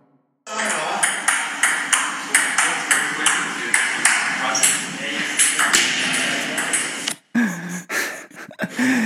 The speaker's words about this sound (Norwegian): Hva er det som skjer? Det er foten min som går gjennom en eh, gipsvegg på Forshaugan eh, campus.